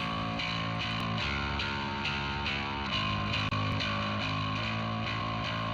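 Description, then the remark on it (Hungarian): A dense music recording squashed by heavy compression after the compressor threshold was pushed up, its loudness pinned flat and its attacks blunted, with a harsh, distorted, smeared texture throughout and no voices. “Tehát van egy ilyen, van egy ilyen kiegyenlítgetés, ami a jókása felvétel, ez már megette a torzító, sajnos az indítását nem annyira érzékelhető,”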